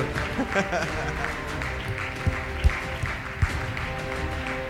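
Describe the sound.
Audience applause, a steady, dense patter of many hands clapping for several seconds, mixed with crowd voices, with a few sharper low thumps breaking through.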